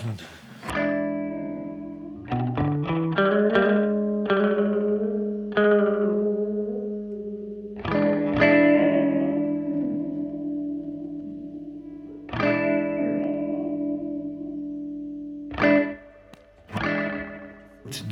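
Guitar chords played through a multi-head echo unit, an echo rack with four separately controllable heads and a light-sensitive resistor, each strum smeared into sustained, repeating tones that ring and blur together, with several struck chords over about eighteen seconds.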